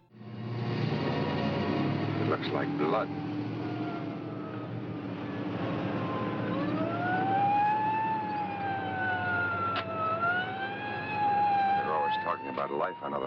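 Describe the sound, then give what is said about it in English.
An ambulance siren wails in slow rising and falling sweeps as the ambulance drives off, loud, over a steady low engine rumble, with muffled voices underneath at the start. “As the ambulance drives off, it severs the stem of a flower.”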